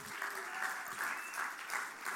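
Sustained crowd applause, a dense wash of many hands clapping at a steady level with gentle swells, lasting a couple of seconds without any voices; the audience is welcoming a family who are about to share a testimony.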